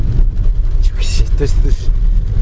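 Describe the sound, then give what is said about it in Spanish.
A car rumbles steadily along a rough tractor track, with bursts of hissing spray as its tyres aquaplane through water; faint voices murmur beneath the engine noise. “El agua aguaplaning, esto es agua aguaplaning por un camino de tractores.”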